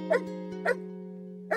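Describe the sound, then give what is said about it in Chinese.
Three sharp barks from search and rescue dogs at a search and rescue dog training base, at irregular intervals, the last after a longer pause, over a steady low hum with no talking. “所以你可能会听到一些搜救犬的叫声以及训练的声音。”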